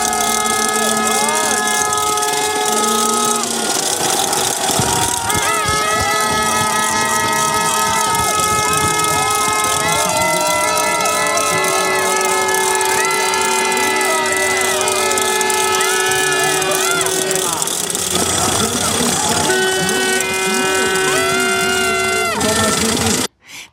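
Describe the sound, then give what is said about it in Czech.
A loud, dense crowd at a biathlon relay race, with long blaring horns sounding over and over in overlapping tones above constant cheering and shouting, continuing throughout until a sudden cut. “A teď si poslechněte, jak to včera při závodě štafet vypadalo.”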